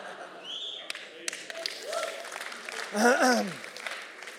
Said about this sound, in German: Okay, ich weiß nicht, warum der an dieser Stelle klatscht, meine Güte.